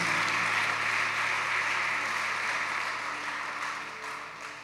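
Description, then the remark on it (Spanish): An audience applauds loudly and steadily to welcome newcomers, a dense wash of many hands clapping at once that holds strong before tapering off slightly toward the end. “No vuelvan a su lugar, las personas que los invitaron los van a esperar acá, sino sigan aquí con ellos y démosles otro fuerte aplauso de bienvenida.”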